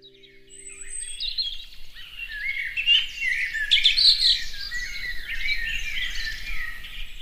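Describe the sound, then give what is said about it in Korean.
Many birds chirp and twitter continuously in a forest, overlapping high-pitched calls filling the scene at a steady moderate level, with no voices present. “새들아 안녕. 나는 …라고 해. 너희도 음악 들으러 왔구나.”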